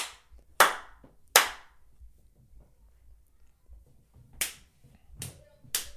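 Five sharp, bright hand claps made to sync a camera, with no talking: two spaced apart early on, then a pause of low background hum before three more in quicker succession.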